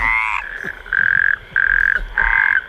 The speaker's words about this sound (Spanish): El super sapo que hay que comerse, el batracio.